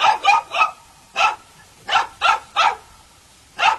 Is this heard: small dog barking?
yes